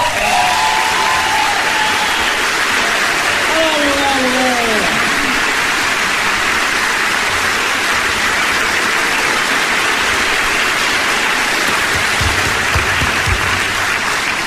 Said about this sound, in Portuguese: Favor recebam Roger Correia no aplauso.